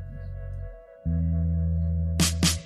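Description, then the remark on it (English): A short electronic jingle played by StreamYard's test-your-speaker button: a low synth tone, then a sustained buzzy bass chord, capped by three quick crashing percussive hits near the end, loud with no voices. “StreamYard, and they have a little like test your speaker button that you push, and it plays this little jam, and it's like absolute fire, and you're about to hear it right now.”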